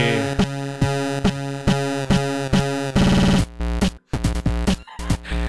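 A loud, aggressive electronic dance track with a pounding regular beat, heavy bass and dense distorted synth layers, chopping into stuttering breaks and brief dropouts toward the end; no voices.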